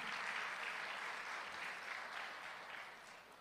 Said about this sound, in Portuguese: Bom, muito obrigado. Uma salva de palmas para o pessoal que nos ajudou.